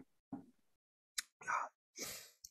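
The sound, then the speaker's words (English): Beer splashes into a glass in a few short bursts as a little extra is poured, with a sharp clink and a soft thud between the pours. “Got to pour a little little extra over here.”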